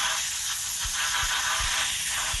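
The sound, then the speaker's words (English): A dental water spray hisses steadily for the whole stretch as a dentist washes out a tooth after drilling out an old filling, a bright, even rushing spray, broken by a few soft low thumps at irregular moments. No one speaks. “Uh uh i am washing it out now.”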